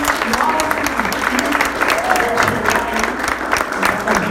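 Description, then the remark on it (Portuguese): Steady, dense applause from an audience fills the whole clip, many hands clapping at once in a continuous loud wash, with a faint murmur of voices underneath, as the audience gives a round of applause for a featured speaker. “uma salva de palmas para é o genial”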